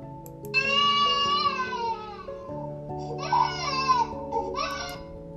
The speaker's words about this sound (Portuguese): Esse tá fácil, né? É o choro do bebê.